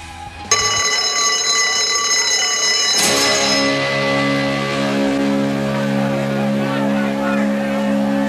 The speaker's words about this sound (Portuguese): Bom, então vamos ouvir que acho que o sinal já vai tocar, hein, cara.